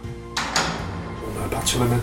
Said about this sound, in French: il a sorti une clé de sa poche et il a ouvert une porte fermée à double tour